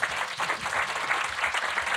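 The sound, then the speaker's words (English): Steady audience applause, a dense wash of many hands clapping at an even, sustained level throughout, with no voices standing out. “Round of applause.”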